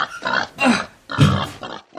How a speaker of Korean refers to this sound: 지그재그 모양으로 날이 선 엽구가 돼지의 허벅지를 조이고 있었다. 돼지가 케이지에서 발을 휘저을수록 엽구는 더 깊숙하게 살을 파고들었다. 돼지가 움직이는 방향으로 케이지가 기울었다.